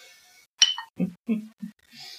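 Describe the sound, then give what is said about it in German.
A single bright clink of beer glasses touching in a toast, with a short ring, followed by a few low murmured words over a faint background hiss. “Dann hier äh, auf unsere Hörerschaft. Ja genau, Prost.”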